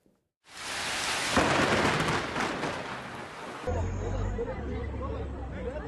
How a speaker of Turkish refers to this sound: Gök gürültüsü şimşek ardından bastıran kuvvetli yağmur ve dolu sel oldu. Arabalar suya gömüldü.